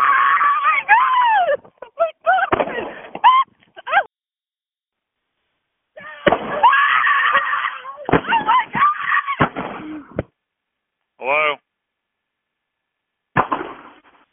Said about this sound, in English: … was getting shot while on the phone with 911.